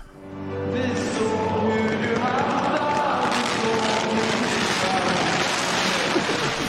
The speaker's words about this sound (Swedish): Det var en jäkla massa fyrverkerier som drog ut över planen.